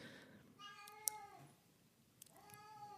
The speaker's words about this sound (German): Jetzt kommt auch wieder die Katze um die Ecke. Wunderbar.